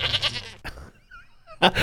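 A goat bleats loudly, a wavering, buzzy cry, then falls quiet for about a second before a second harsh bleat bursts out. No one speaks.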